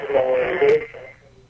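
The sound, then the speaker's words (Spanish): A radio plays in the background, its thin, boxy sound carrying muffled voice-like tones and a brief burst of hiss before fading quieter toward the end. “Sí, porque de atrás suena, viste que suena nuestra radio.”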